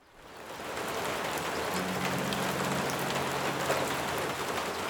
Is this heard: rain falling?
yes